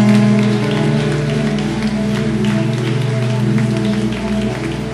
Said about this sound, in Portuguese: Então dê mais uma vez um forte aplauso a ah, Jesus.